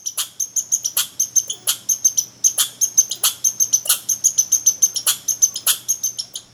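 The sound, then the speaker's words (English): A chipmunk chirps rapidly and steadily right up close, sharp high chips repeating several times a second with a few louder accented calls, no voices, just a faint low hum behind. “I've grabbed recordings of squirrels and mice, but by far the best performers in front of the mic in my neck of the woods are chipmunks. They'll just walk right up to the food, sniff the mic close, and then start chirping and talking away.”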